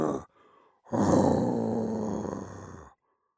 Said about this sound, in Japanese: 突然、恐ろしい声が通信機から聞こえてきました。わかったぞそれは虎だ